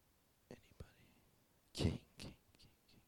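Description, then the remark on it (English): Quiet, breathy whispering from an audience member whispering an answer, coming in a few short bursts, with the strongest puff of whispered sound in the middle and soft silence around it. “Um, somebody whispered it.”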